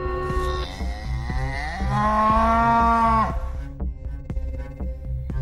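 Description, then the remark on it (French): A cow moos loudly in one long, drawn-out bellow that swells and then fades, followed by quieter background sounds and faint clicks. “Voilà, donc on vous vous avez dit que notre vache serait un peu le, fil rouge aujourd'hui de, de, et la thématique principale de, de ce, hors-série.”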